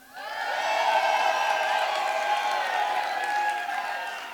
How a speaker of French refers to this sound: Imaginons qu'il vienne gagner la course, et on va l'acclamer, on va l'applaudir.